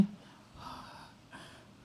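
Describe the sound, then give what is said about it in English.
A person demonstrates a small, restrained yawn, as one yawns in public: two soft, breathy puffs of air, quiet and controlled, with no talking. “When you are outside, you yawn like”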